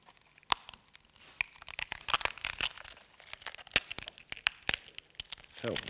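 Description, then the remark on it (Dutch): A crusty loaf of bread is broken into pieces during a reading from 1 Corinthians 11, giving a run of sharp crackles and dry, crinkly snaps with brief pauses, steady and fairly quiet, with no one speaking. “wil wel breken”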